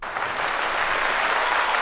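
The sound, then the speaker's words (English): Steady, dense clapping from a large crowd with a faint cheering roar after a soccer goal, loud and sustained for the full two seconds, with no talking over it. “We're definitely not watching the Cincinnati and SKC game, and SKC definitely did not just score. Yeah, and we're definitely not cheering.”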